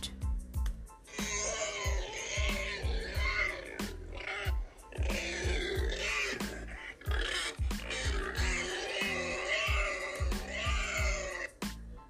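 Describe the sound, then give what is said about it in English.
A pink pig grunts and squeals repeatedly in quick, rhythmic bursts, fairly loud, with throaty snorts running continuously through the whole stretch and no talking. “This is the pig. The pig is pink in color and has four legs and a curly tail. The sound that it makes is called grunting.”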